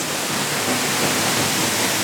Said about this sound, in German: Und jetzt sind wir da eigentlich in der Höhle rein, also unter dem Felsvorsprung, hinter dem Wasserfall.